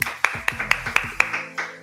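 A short burst of applause: about seven sharp, evenly spaced claps in a steady quick rhythm, fairly loud, with a faint low tonal sound underneath and no talking.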